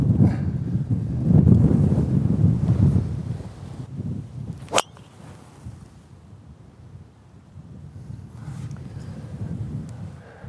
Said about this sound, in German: Gut, jetzt auf jeden Fall ein bisschen Wind von rechts.